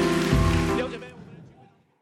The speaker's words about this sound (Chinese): 阿门！阿门！把掌声荣耀归给神。